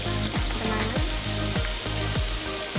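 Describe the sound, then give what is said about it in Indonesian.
Sate lilit (wrapped satay) frying on a hot pan makes a loud, steady sizzle, broken by a recurring low scraping thump about twice a second, with no voices. “Nah, sekarang -hmm. tinggal kita panaskan.”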